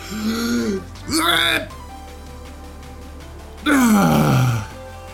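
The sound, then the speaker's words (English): A man vocally imitates the straining grunts of a man on the toilet: three drawn-out groaning efforts with short pauses between them, fairly loud, the last one sliding downward in pitch. “you sound like one of them old fucks in the bathroom at work.”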